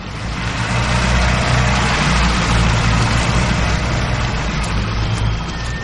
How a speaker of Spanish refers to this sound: El coche sale del patio.